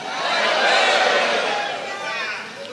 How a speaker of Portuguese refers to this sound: Dá um grito aí para ouvir seu grito.